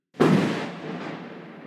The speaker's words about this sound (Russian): Тут над нами, мы так поняли, гром громыхнул.